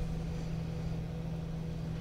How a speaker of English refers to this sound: Do I want to stop? Do I want to idle? Do I want to aggressively move? And that's why those RPMs are revving higher because I'm, I'm putting more strain on the engine.